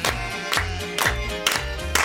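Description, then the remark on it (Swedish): Steady hand claps land on the beat, about twice a second, over bright, sustained music with a deep bass line; the claps are sharp but partly blended into the song. “Och här klappar vi med också!”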